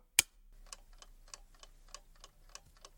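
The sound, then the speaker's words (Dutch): An old mechanical chess clock, set to three quarters of an hour, ticks steadily at a brisk, even pace, fairly quiet, after a sharp click at the start as the button is pressed. No talking. “Ik stel de klok in op drie kwartier. En dan oude klok nog steeds.”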